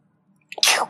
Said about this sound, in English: Okay. I'm gonna sneeze.